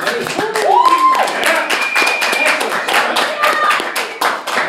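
A crowd claps steadily for several seconds, a dense patter of hands, with a few rising whistles and shouted cheers mixed in near the start.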